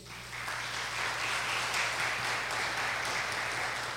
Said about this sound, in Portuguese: Quantos podem aplaudir o Senhor por isso?